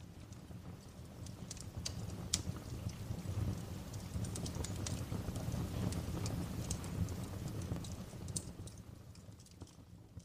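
A crackling fireplace fire: irregular sharp pops and snaps scattered over a steady, soft rumbling hiss, holding an even moderate level throughout with no voices.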